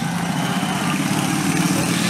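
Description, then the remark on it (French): A motorcycle engine runs loud, a steady buzzing drone that holds at an even pitch and level for the whole stretch, with no voices. “en l'envoyant se faire secouer sur une moto”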